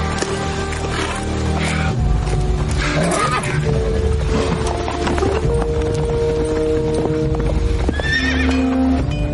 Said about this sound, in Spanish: Gideon sube a un caballo. y Se marcha del campamento.